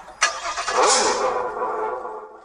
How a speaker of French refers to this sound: Ça, c'est le son voiture.